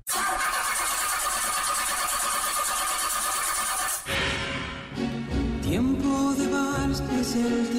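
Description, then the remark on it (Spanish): The engine of a broken-down car cranks and struggles to start: a long, steady grinding whir, then rough, uneven revving and sputtering, loud, with no one talking. “Por lo pronto, pues sí, la razón era, era un par de coches descompuestos.”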